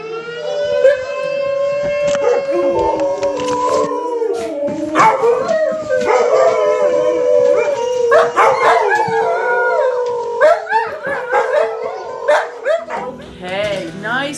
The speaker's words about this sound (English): don't call her at noon Alaska time because in Nome, at noon, the fire station sounds its alarm and Sue's dogs go crazy. It takes them quite a while to simmer down. Take a listen. This is Zach, Zoe, Zevon, and Zelda.